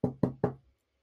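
Three firm knocks on a door in quick, even succession, fairly loud, followed by silence with no voices.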